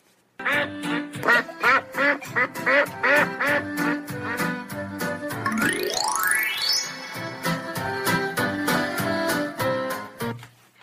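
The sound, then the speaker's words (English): A rapid string of loud, nasal duck-like quacks, imitated rather than real, broken midway by a quick rising whistle-like sweep before the quacking carries on to the end. “No, silly Willy, you look like a duck.”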